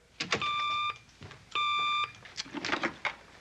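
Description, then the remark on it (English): A Batphone hotline telephone at police headquarters rings twice in steady electronic tones, each ring about half a second long with a short pause between, over some light clattering and handling noise. “Plug me in at once into the hotline bat phone circuit.”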